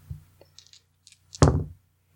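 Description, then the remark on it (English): Golden dice are rolled and clatter across a hard tabletop: a few light clicks and rattles, then a louder tumbling clack that settles within a moment. There is no talking. “So I'm going to roll. That's plus oh. superior with my yep. lovely golden dice.”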